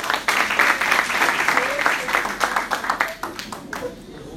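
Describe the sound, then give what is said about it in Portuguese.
A church audience applauds the Lord steadily, many hands clapping in a dense, sustained wash that thins slightly toward the end, with faint voices mixed in beneath. “Dê um aplauso ao Senhor e fique em pé.”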